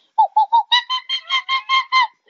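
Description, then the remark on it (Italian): A voice imitates a monkey's shriek in a quick series of about ten loud, high-pitched whoops, the first few hooting lower before rising into brighter, screechier cries, with no talking. “Anche scimmia udì la musica e gridò.”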